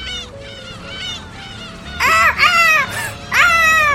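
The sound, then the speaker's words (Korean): Several gulls on Korea's West Sea, gathering around a boat as they are fed snacks, call over one another in shrill, wailing cries, faint at first and then loud in repeated bursts, with no talking. “과자를 주면 줄수록 주변에 좀 많이 갈매기들이 좀 모이더라고요.”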